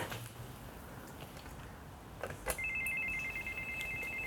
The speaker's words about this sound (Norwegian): Ringer på.